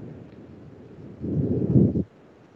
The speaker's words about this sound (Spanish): Este está entrando el chiflón o porque se oye tanto aire. Sí, está entrando el chiflón, yo creo.